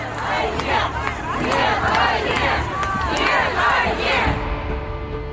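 A large crowd of Russian protesters demonstrating against what is happening in Ukraine marches through the street chanting slogans, many voices shouting together in loud, rhythmic bursts over a constant roar of background babble.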